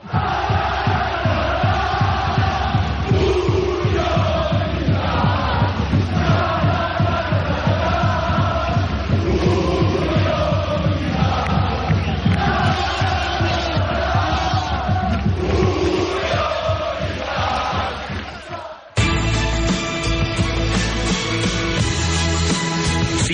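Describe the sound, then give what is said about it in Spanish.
A loud crowd of football fans celebrates, cheering and chanting in unison over steady rhythmic clapping for about nineteen seconds, then cuts abruptly to music. “Así lo celebraba la afición.”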